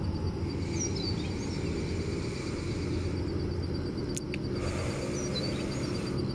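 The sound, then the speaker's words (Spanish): Faint birds chirp now and then over a steady low outdoor rumble, with a few short high calls scattered through the ambience and no voices. “Y hasta déjate guiar por los pájaros que hay aquí en este momento.”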